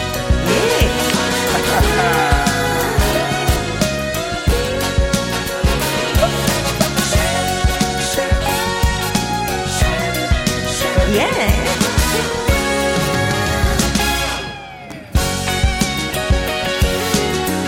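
A funky, rhythmic pop song intro plays loud and full with a steady groove and no vocals, briefly dropping out near the end before the band kicks back in.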